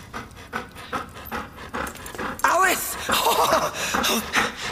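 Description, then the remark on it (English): A dog pants quickly and steadily, its rapid breaths overlapping with a person talking in an excited, soothing voice. “You're such a good dog.”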